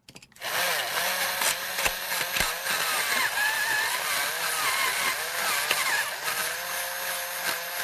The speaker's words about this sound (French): Je te rappelle que c'est un son qu'on entend dans une classe à l'école, Stéphanie. Mais c'est-tu un aiguise crayon?